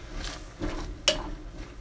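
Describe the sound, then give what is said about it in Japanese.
A single sharp metallic clink of a cooking pot being handled as the flame under the boiling pot is turned down to low while a meal is cooked, over a low steady kitchen hum with faint shuffling before it. “ちょっと鍋が沸騰したので、ちょっとね、鍋の火を緩めて、えー ちょっとね、あの、えー、一回沸騰を止めて、えー、火を弱火にしたというか、とろ火にしたというか、はい。”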